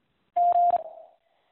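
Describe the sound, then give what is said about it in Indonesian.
A single electronic beep, a prompt signalling that a quiz question should be answered, rings out, a steady mid-pitched tone held for about half a second with a couple of small clicks, then fading into a short echoing tail before silence. “Silakan jawab setelah nada berbunyi.”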